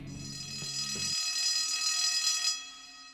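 A shrill electric alarm bell rings continuously for about two and a half seconds, loud, then cuts off abruptly, with a low mechanical rumble at the start.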